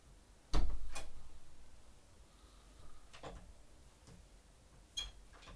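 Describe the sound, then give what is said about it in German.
A child rummages in a drawer holding Lego figures: one sharp knock with a lingering ring, then scattered light clicks and taps of small objects being shifted, with no talking. “Das sind, in den Schubladen sind noch mehr Fig äh, Lego-Figuren.”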